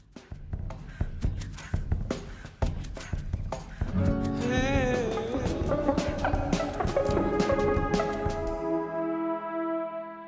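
A music track plays on its own on the show Katarsis: sharp rhythmic percussive hits at first, then layered sustained tones with a brief warbling, bending pitch, fading to a low hum near the end.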